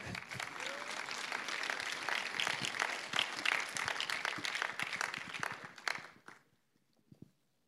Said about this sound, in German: Ein kleiner Applaus für meine Ex-Rippe.